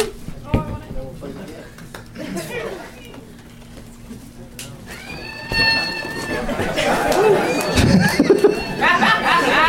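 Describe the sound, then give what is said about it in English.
Crowd chatter fills the room, then a slingshot flying monkey toy (a Woot Monkey), shot into the crowd, lets out a shrill, rising scream midway through, over the noisy, laughing crowd. “you know, my my kids had a couple of those woot monkeys in our house for a while, and that fucking noise.”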